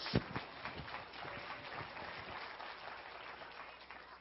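An audience claps steadily in praise of the Lord, many hands applauding together in a dense, sustained wash of praise at a moderate level.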